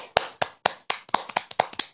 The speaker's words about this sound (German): Das ist aber schon arrogant, weil ich gerade für mich selbst klatsche.